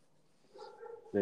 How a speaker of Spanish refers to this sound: ya, hay, muchos perros ladrando, ya está como esta hora ya, por ahí salen cosas.